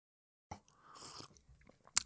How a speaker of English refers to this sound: Little sip of coffee just to get going.